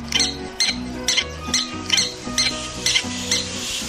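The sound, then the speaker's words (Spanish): Mexican prairie dog calls, a steady run of about eight sharp, high-pitched squeaky chirps repeating roughly twice a second over a low, sustained tonal background. “Somos perritos llaneros mexicanos.”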